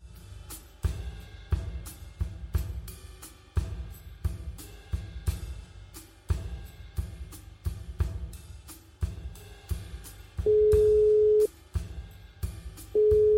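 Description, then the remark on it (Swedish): A steady telephone tone sounds twice near the end, a long beep then another starting, as a call is placed to a number that cannot be reached, over a rhythmic, bass-heavy musical beat that plays throughout. “Jag söker Handelshögskolans rektor Lars Strannegård flera gånger på telefon.”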